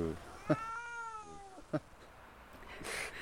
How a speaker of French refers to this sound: C'est le chat décidé de faire du bruitage.